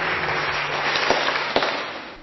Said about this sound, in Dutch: U mag hem gewoon even een applaus geven. Hij is 60 jaar getrouwd. Ik bedoel, dat doe je niet zomaar.